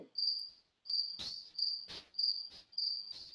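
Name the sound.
cricket chirping sound effect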